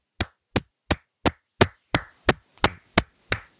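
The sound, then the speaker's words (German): A steady series of about eleven sharp, loud hand claps made into a microphone, evenly spaced roughly three per second, each a crisp smack with a quick decay, and no talking in between. “Ich würde dich bitten, dass du jetzt einmal ins Mikro klatschst.”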